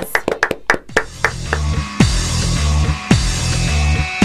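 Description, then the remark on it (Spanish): Applause, shouts and ovation welcome the president of the Unión Andina de Rugby onto a rugby programme. A burst of sharp, scattered handclaps opens, then gives way to a dense, steady roar of applause with a heavy low rumble underneath, a few louder hits punctuating it. “Aplausos, gritos y ovación, así lo recibimos.”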